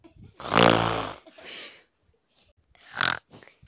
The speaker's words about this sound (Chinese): 天哪！他们又听到了像打雷一样大声的打鼾声，因为阿姨打呼的声音实在太大声了。